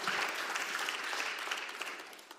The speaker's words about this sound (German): Wow, gebt ihr doch mal einen Applaus, ist doch nicht großartig. Hammer.